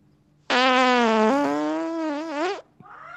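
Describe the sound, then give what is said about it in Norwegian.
A single long, loud fart, squeaky and steadily pitched, played back from a recording, lasting about two seconds and rising slightly at the end before cutting off. A brief, fainter sound follows afterward. “Kan vi, kan vi, få en replay på den fysen?”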